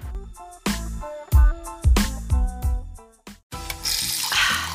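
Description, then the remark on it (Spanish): A series of bright, ringing knocks and clinks, then tap water gushes from a faucet in a steady, hissing stream through the last second, fairly loud; certified tap water in Pereira. “¡Qué delicia el agua de la llave! y yo tomando de botella.”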